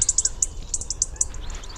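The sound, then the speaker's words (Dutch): A European robin sings in autumn, a quick series of thin, high notes, bright chirps and short trills in uneven bursts, over a low outdoor rumble with no voices. “Dus de prachtige zang hoort echt bij deze tijd van het jaar van de roodborst.”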